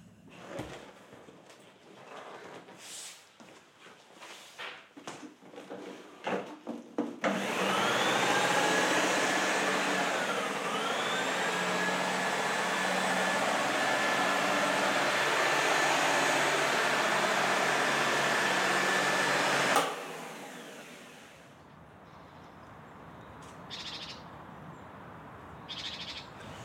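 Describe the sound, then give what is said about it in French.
A vacuum cleaner starts up and runs steadily for about twelve seconds with a loud, continuous whine that dips in pitch once, then cuts off, with some shuffling and handling sounds before and after. “Ah, mais je passer l'aspirateur, maman, mais tu vas passer.”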